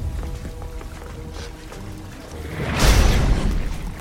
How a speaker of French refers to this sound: Ces coups sont beaucoup trop forts. S'ils continuent, ils vont faire céder la baie d'observation.